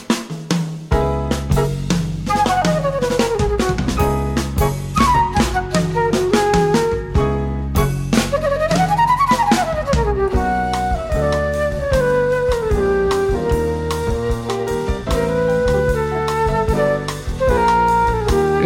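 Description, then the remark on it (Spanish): A lively samba-style song with a female singer and flute carrying sliding, ornamented melodies over busy, steady percussion and bass, loud and continuous throughout. “suena así en la voz y en la flauta”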